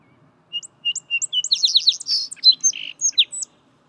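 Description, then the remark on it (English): A male song sparrow sings one complete song, opening with a few clear introductory notes, then a rapid buzzy trill and a jumble of varied chirps, crisp against a quiet background. “Male song sparrows sing songs that are a variation on a common theme.”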